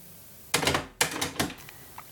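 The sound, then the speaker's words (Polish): A cassette deck's auto-reverse mechanism switching from side A to side B: a series of three sharp mechanical clunks with a brief whirring rattle between them, then quiet. No one speaks. “Tak, włączyła się i powinna się zaraz przełączyć na B.”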